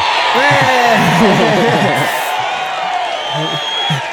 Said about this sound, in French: J'ai envie de mettre un jingle.